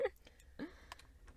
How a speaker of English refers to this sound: Not, that was the cat. yeah. She's not coming in. She really she wanted to, but she she can just creepily scratch at the door.